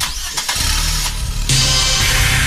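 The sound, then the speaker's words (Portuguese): A loud engine revs hard at high RPM, its steady droning whine jumping louder and harsher about halfway through and holding there, with no voices. “Alta rotação.”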